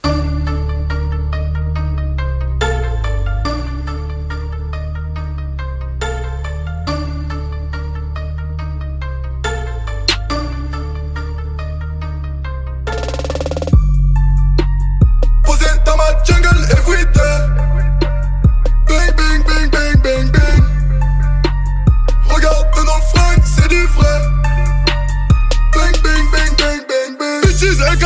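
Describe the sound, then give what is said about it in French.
A French rap track with 325 million views plays loudly, opening with a repeating bell-like synth melody before a heavy bass and punchy drum beat kicks in about halfway through and continues steadily. “325 millions de vues. Eh ben voilà, Pour un rap français, c'est incroyable”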